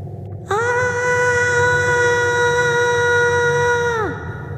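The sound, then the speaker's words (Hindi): A girl's loud, piercing scream bursts in suddenly, holds one long, steady high pitch for about three and a half seconds, then sags and trails off over a low background rumble. “थोड़ी ही देर में वो कदमों की आहट जब ख़त्म हुई तो इशिका ने अपने आप को संभालना चाहा पर तभी जैसे किसी लड़की की ज़ोरदार चीख सुनाई दी उसे”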